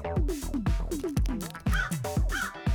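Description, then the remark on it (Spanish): A crow caws repeatedly in quick succession, harsh and loud, with short bursts following one another in an uneven rhythm, with nothing else in the background. “Los cuervos son bastante buenos para reconocer las caras de las personas e incluso se ha descubierto que las recuerdan durante mucho tiempo.”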